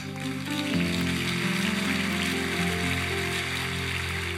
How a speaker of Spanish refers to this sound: Dele un aplauso a mi hermana.